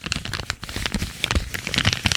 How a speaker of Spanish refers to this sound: Voy a hacer yo también a SMR con un ticket del chino. A ver.